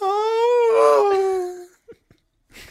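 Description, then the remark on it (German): A voice imitates a whale racing past: a long, wavering, tonal wail that swells and slowly fades over about a second and a half, followed by a few soft clicks and a brief breathy burst. “Welches Tier kannst du am besten nachmachen? Der vorbeirasende Wal.”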